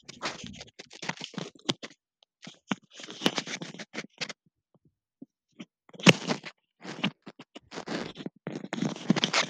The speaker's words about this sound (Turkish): Mikrofonun süngeri çıkmış onu taktı